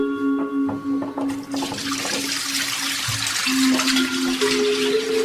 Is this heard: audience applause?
no